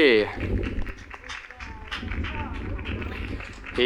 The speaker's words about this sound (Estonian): ja teeme ühe suure aplausi.